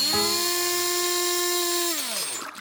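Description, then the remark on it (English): A blender blending a drink made with cheeses, including mature cheddar and Parmesan, whirs at a steady, high-pitched whine for about two seconds, then slows and winds down as it switches off. It is loud, with no voices. “The drink was prepared, each boy adding their favorite cheese item until finally it was ready for the blender.”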